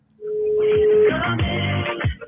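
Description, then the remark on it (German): A steady telephone ringing tone hums for about a second over a phone line, then cuts off as a muffled voice briefly comes on the line. It is a phone call made in early February 2019. “Das erklärt sie uns Anfang Februar 2019 am Telefon.”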